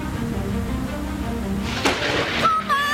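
A low, steady rumble of thunder from a lightning strike during a rainstorm rolls throughout, broken by two sharp, loud cracks in the second half, with a faint tonal, voice-like sound emerging right at the end.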